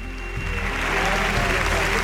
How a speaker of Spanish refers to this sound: Acaba de salir a, la segunda raya Jiménez Fortes, Fortes a saludar la gran ovación que le está dando el público que asiste a este festejo.